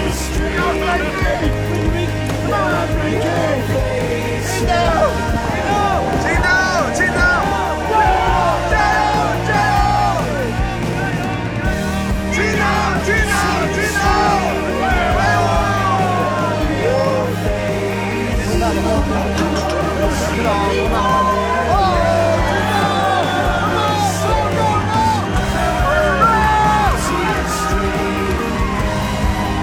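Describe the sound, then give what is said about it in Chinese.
The crew of the sailing yacht Qingdao cheers and yells as it crosses the finish line of a race leg, many overlapping excited voices shouting over a steady low rumble and constant wash of wind and water, loud throughout. “然后大家来听一下我们冲线时刻。”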